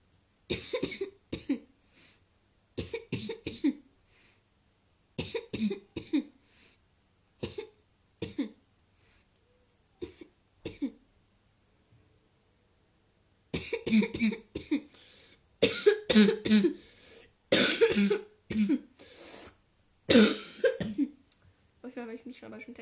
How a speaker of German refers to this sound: Und ja, auf jeden Fall muss ich gerade ziemlich husten. ich habe irgendwas eingefangen, auf jeden Fall aber nicht Corona.